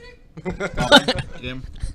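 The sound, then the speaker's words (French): A person imitates a cricket's chirp with their voice, producing a short burst of high-pitched, warbling squeaks that peaks briefly before fading into softer vocal noises. “fais-moi le grillon. C'est high pitch.”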